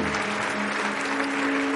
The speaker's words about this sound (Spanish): Y por eso te damos un aplauso con todo, con todo nuestro corazón.